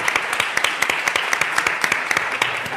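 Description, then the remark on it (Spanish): Steady applause from a crowd, many hands clapping in a dense, continuous patter with sharp individual claps popping out, loud throughout. “Muy bien, un aplauso, otro aplauso, para él, por favor.”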